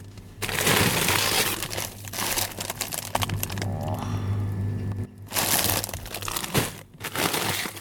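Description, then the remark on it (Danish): Loud crinkling and crunching of plastic frozen-food bags being shuffled and handled in the bottom of a chest freezer in Højtostrup, with a steady low hum underneath and brief pauses between bursts of rustling. “Men det er et eksempel på, hvor man også kan finde historier, for eksempel i bunden af en by bundfryser i Højtostrup.”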